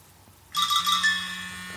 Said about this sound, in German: Jetzt klingelt hier mein Handy rum.